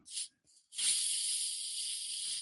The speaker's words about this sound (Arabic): عندي واحد المكازوز ما عرفتش واش غادي تسمع في الميكرو ولا تنجرب نجرب